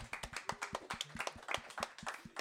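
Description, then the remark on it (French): Studio applause from a small group: a steady patter of many overlapping hand claps, crisp and fairly loud, running unbroken with no voices on top. “On peut applaudir ou pas euh, Ouais, allez, on applaudit.”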